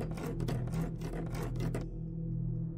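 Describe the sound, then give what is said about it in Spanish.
Slow, tired-sounding but insistent scratching on a bedroom door at night, a series of broad rasping strokes repeating about every quarter second for nearly two seconds, then stopping, leaving only a low steady hum. “Es por eso que me preocupa que recientemente me he despertado por las noches al escuchar rasguños en mi puerta. Estos son lentos, como cansados, pero insistentes.”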